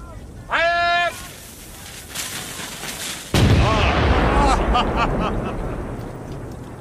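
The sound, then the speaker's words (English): A single loud cannon shot, fired with the range set at 2,000 yards, booms out mid-clip, its low rumble lingering and fading, after a brief raised call or tone near the start and quieter voice-like sounds beforehand. “I like these cannons of yours.”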